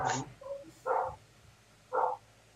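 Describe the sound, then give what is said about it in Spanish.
Dogs bark a few times, short sharp barks spaced about a second apart, against a quiet background with no one talking. “faltaban los perros en este episodio también.”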